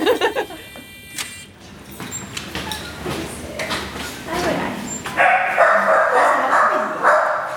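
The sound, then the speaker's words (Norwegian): A small white-coated terrier named Ebba yips and barks in short, excited bursts, mixed with whimpering and rustling, while people talk around it. “Her kommer Ebba, en klassisk terrier. Hei! Hei, du! Kommer du bjeffende?”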